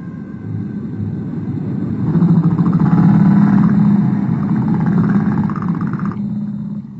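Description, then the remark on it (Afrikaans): A deep, continuous roar of the sea, like heavy surf rumbling, swelling louder in the middle before easing slightly, with no voices present. “Hoor hoe raas die groot see.”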